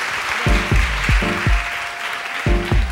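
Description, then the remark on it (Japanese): An audience at a lecture class applauds steadily throughout, a dense wash of clapping at moderate loudness, with a few low, booming tones pulsing underneath at irregular intervals. “はいどうもありがとうございます皆さん拍手をお願いしますはい”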